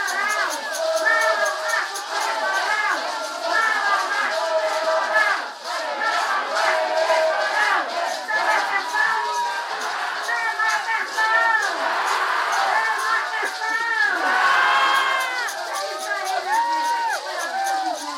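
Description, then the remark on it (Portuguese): A large crowd of Indigenous delegations chants and shouts protest slogans against anti-Indigenous bills and the 'marco temporal' in unison, voices rising and falling in rhythmic waves, loud, with sustained collective cries throughout. “Durante toda a manhã, diversas delegações que chegaram após a abertura oficial fizeram suas apresentações com cantos, gritos de manifestações contrárias aos PLs anti-indígena e ao marco temporal.”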